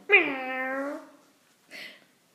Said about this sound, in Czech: A cestou potkal domácí kočku. Tak si říká, že se jí zkusí zeptat. Ale kočka, místo toho, aby mu odpověděla, tak vycedila zoubky a vrhla se po něm.